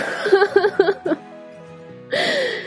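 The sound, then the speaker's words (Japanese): A pet named Ran, in heat, cries out: a quick run of short, strained yelps, a brief pause, then a longer wailing cry that slides downward in pitch, with no talking. “ラんちゃんね、今ちょっと、発情期入っちゃって、うん、気違い的にずっと泣き続けてるんで、えー、今回と、まあ、あと多分数回、ランの変な声が入ってると思いますけど、申し訳ございません。”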